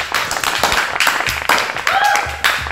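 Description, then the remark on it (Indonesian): Applause from a group welcoming guest star Anya Geraldine, an Instagram celebrity. A steady, loud burst of clapping with cheering voices mixed in throughout. “Kita kedatangan Anya Geraldine. Tepuk tangan dulu.”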